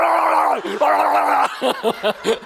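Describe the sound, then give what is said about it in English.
A voice imitates a man yelling inside a tight tube with water running, sounding like a muffled death-metal growl: first a long sustained roar, then a string of short, choppy yelled bursts, loud. “like this death metal band is like coming at her”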